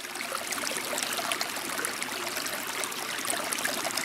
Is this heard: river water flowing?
yes